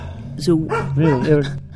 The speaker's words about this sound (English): Shut up, dog.